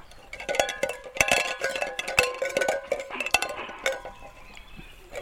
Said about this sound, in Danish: Og så har jeg bundet den i en snor. Og så har jeg øh, bundet nogle, sådan nogle dåser i den snor også. Sådan det larmer. Vil du høre det? Prøv lige, Prøv lige at høre nu.